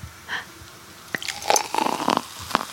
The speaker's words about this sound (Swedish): Låt oss hälla upp lite mer bubbel. Ja. Ja, underbart. Kan vi bara sampla ljudet?